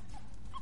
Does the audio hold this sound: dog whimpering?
yes